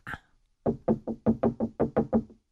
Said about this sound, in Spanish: Uy, ya me voy, ya me están tocando que me salga del baño.